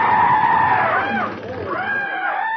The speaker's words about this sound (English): Hey, what's that? That's the cry of the Pavo cristatus. You mean tell me just two birds can make all that racket? Oh, yes.